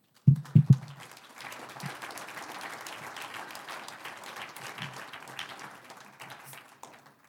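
A church audience breaks into applause for the Lord after a prayer, starting with a few sharp, loud claps before settling into a steady, dense wash of clapping that continues for several seconds with no talking.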